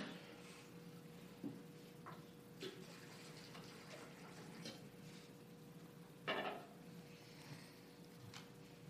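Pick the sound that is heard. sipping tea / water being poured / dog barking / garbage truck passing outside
water being poured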